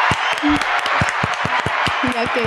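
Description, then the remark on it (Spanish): A burst of steady applause for all the participants after a contest ended in a tie, many hands clapping in a dense, uneven rhythm, with a few voices calling out over the clapping toward the end. “Un aplauso para todos allá”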